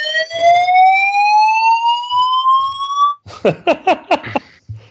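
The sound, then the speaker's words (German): A fire alarm blares a loud, steady electronic tone that creeps slightly upward in pitch for about three seconds, then breaks into a quick series of sharp, pulsing bursts. “Feueralarm Was ist in da los?”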